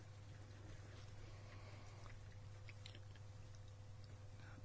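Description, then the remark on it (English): Faint water gurgling and bubbling in household pipes, with soft irregular blips over a steady low hum. It is quiet and continuous, with no voices. “I thought that was a fish tank. Remember we used to have yeah. a fish tank, and I heard yeah. it, but it's from the pipes.”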